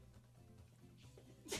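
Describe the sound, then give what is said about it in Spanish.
A single sharp sneeze bursts out suddenly near the end, after a stretch of quiet low background hum. “¡Salud!”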